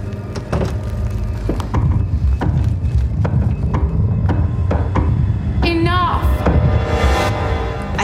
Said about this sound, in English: hear the knocking again. It's like one, two, three, one, two, three.